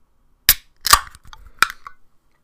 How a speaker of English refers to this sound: Just going to pour myself a beer actually.